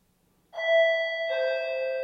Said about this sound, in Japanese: マンションのオートロックのインターホンが鳴った。